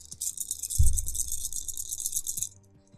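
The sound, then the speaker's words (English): Dice rattle continuously for about two and a half seconds, a bright, dense clatter, with a soft thump near the start before the shaking stops. “These dice.”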